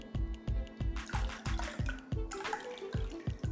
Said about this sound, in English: Yes, that's the sound of, of water being poured into a, a full glass of water because when we first started out, the glass was empty and you heard the sound of the water being poured into the glass.